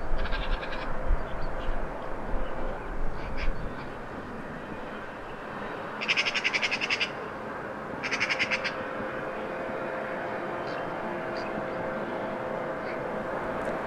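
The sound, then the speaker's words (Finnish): A magpie gives two short bursts of harsh, rattling chatter from a tree, over a steady low rumble of work machinery. “Tuolla se kurnuttaa puussa.”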